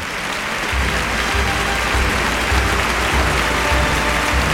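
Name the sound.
bullring crowd ovation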